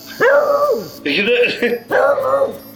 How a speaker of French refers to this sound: Non mais qu'est-ce que Non mais c'est pas vrai ce chien, j'y crois pas que c'est pas vrai que j'y crois pas.